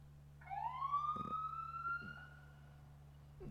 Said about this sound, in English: Uh, that's a police car.